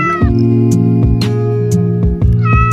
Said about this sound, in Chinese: 这一带没太多不怕人的猫。只要落在特定范围内，或者有眼神接触，毛球就会叫。